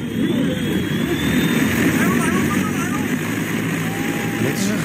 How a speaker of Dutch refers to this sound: Het is een zogenaamde, ik moet even kijken, eVTOL. Een soort bobslee met eh, vier propellers. Zo kan ik het ah. best omschrijven, denk ik. Die verticaal kan opstijgen en kan landen.